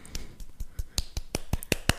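A brief burst of hand clapping: about a dozen sharp, crisp claps in a slightly uneven rhythm, growing louder toward the end, with no voices.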